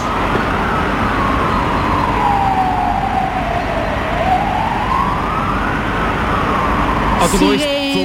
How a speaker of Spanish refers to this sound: sonando las sirenas, Jesús, como puedes escuchar, avisando a la población de la posibilidad de bombardeos